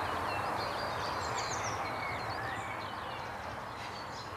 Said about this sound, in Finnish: tuossa viimeisten aloittajien joukossa siinä viiden korvilla eli auringon nousun tienoilla niin aloitti mustapääkerttu, joka on vasta tässä viime päivinä saapunut tähän hyönteissyöjiä, jolla on erittäin upea laulu. Puhaltelee huilunsa.